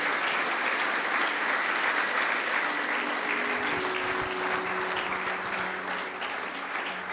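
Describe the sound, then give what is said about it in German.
An audience at a church service claps steadily for several seconds, applauding those who decided to follow Jesus; a dense, even wash of hand claps that holds its level throughout, with a faint low hum emerging underneath toward the end. “Hey, geben wir doch denen Applaus, der wirklich die Entscheidung gemacht hat.”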